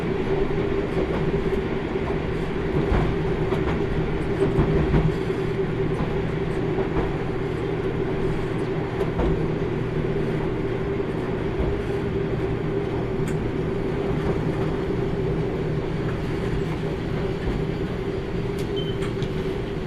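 The JR Kyushu Kyushu Odan limited express No. 3 runs steadily on the Hohi Main Line between Tateno and Miyaji, Japan, a continuous low rumble with a humming drone and faint rhythmic rattling, holding an even loudness throughout with no voices.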